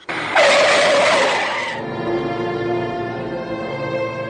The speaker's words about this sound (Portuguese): Friei o carro bruscamente após uma curva à esquerda. O carro deslizou no asfalto úmido e esbarrou num barranco próximo.